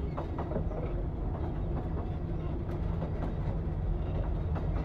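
train running on rails

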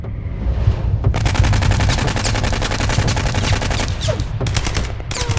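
machine gun firing

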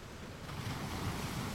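ocean waves

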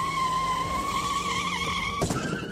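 car tires skidding

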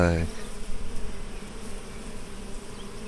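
honeybees buzzing

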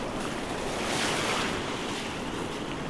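ocean waves on beach

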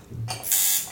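tattoo machine buzzing

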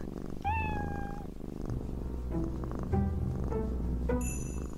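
cat purring and meowing

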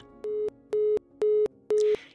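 telephone busy tone

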